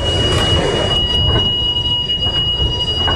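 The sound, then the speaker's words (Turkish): A Marmaray commuter train rumbles loudly and steadily through the underground Yenikapı station, with sharp, sustained wheel squeal ringing high above the deep rolling noise of the cars. “Şu an Marmaray'ın yeni kapı durağındayız ve saatlerimiz 10-17'yi gösteriyor.”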